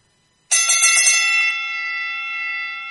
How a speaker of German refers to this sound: Das ist unsere Trade-Glocke. Immer wenn ihr die hört, dann ähm, haben wir einen Trade zu vermelden.